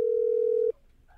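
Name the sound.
telephone ringback tone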